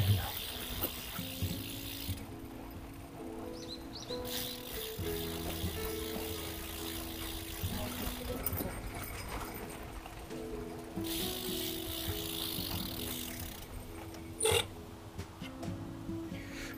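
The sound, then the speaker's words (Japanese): A Brompton folding bicycle with high tyre pressure rattles and clatters continuously over a rough, bumpy road, with irregular mechanical knocks and ticking, plus a sharper jolt near the end. No one speaks. “結構ね、ブロンプトンの体気圧が高いんで、結構カタンカタンカタンカタンになるんで、それがね、辛いですね。”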